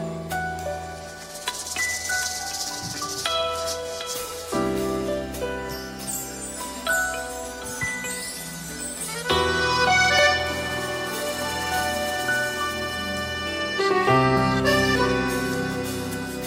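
A song plays steadily, with sustained harmonic chords and a melodic line that shifts every few seconds, filling the whole stretch at an even, moderate loudness with no talking over it.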